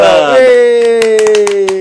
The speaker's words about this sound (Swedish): Älskar våra fejk-applåder.